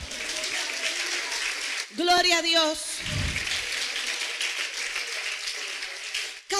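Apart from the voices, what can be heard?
audience applause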